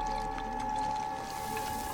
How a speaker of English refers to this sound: Which is activating. that's water activating the dry ice.